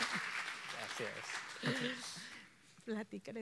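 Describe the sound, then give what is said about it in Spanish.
A crowd claps in a steady, dense burst for a couple of seconds, with voices murmuring and calling out beneath it; the applause fades as a single speaker begins talking. “dale un aplauso, se nos fue el hombre.”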